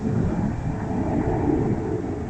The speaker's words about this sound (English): There goes an aeroplane, doesn't it?